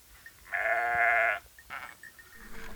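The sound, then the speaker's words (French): A Rove goat, a French breed from the Bouches-du-Rhône, lets out one long, loud, quavering bleat, followed by a shorter, fainter bleat and soft rustling in the background. “La chèvre du Rove est une race caprine française originaire des Bouches-du-Rhône.”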